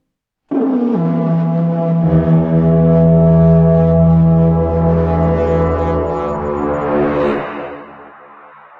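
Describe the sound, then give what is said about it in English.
A loud, deep horn blares in one long, sustained blast lasting several seconds, rich and brassy, swelling slightly before fading out at the end, as morning comes and horns blast all about. No voices are heard. “horns blast all about and bring all of you awake as they continue to blast and you can start to hear a commotion.”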